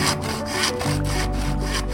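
A hand saw cuts steadily through wood, its rasping back-and-forth strokes coming in a quick, even rhythm. Fairly loud, with no voices.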